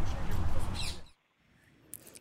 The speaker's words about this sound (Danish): Godt, altså der hører vi, jeg skal lige undskylde for, at lyden er, er ikke den skarpeste. Det er optaget i noget fri natur, så der er lidt, lidt fugle med på linjen.